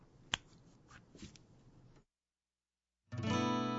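Scattered clicks and a sharp snap over low room noise, then a second of silence before a pop song's intro bursts in loudly with full, bright acoustic guitar strumming.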